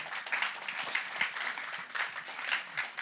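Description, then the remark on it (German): A church crowd applauds the worship time steadily, dense overlapping claps forming a continuous bright wash with slight swells, sustained at moderate loudness throughout with no speech on top. “Lass wir noch mal einen Applaus geben.”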